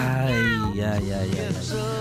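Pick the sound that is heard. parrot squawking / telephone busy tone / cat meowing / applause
cat meowing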